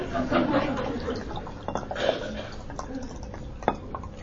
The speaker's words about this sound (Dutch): Ja, nou ja, als het dan toch langer wordt, dan moet ik er nog maar even wat bij schenken.